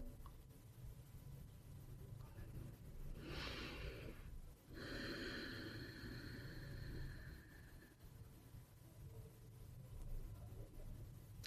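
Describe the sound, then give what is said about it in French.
Deep breathing during meditation: a long, airy inhale followed by a slower, fuller exhale, heard alone over a low steady hum with no talking. “Ma respiration devient plus ample, plus profonde.”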